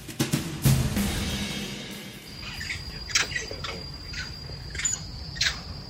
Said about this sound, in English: What you're hearing was actually warning calls by long-tailed macaques. Now, this species of monkeys that are native to Singapore has recently made headlines after a video of them scaling a residential block in Jalan Besar went viral.